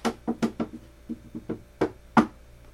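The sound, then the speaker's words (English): A quick run of about ten knocks on wood, irregular in rhythm, with the last few a bit louder, and no voices. “Let me knock on some wood.”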